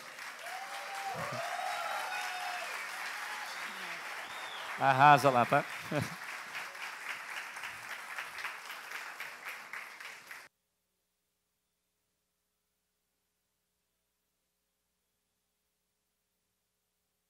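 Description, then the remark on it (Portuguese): An audience at the Elevation Summit gives a standing ovation, a dense steady patter of many hands clapping for about ten seconds, with brief spoken voices cutting in partway through before the applause fades out. “Então eu quero que vocês aplaudam, aplaudam de pé.”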